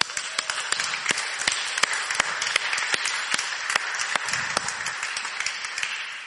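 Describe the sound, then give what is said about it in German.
Steady applause from a church service audience for the livestream viewers fills the whole stretch, dense overlapping claps with a few sharper individual hand claps standing out, fairly loud, with no one speaking. “Hier kommt euer Applaus.”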